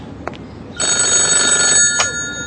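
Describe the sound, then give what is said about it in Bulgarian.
A telephone bell rings in a single bright, rattling burst lasting about a second, framed by short clicks just before and after, with no voices. “търсят те по телефона.”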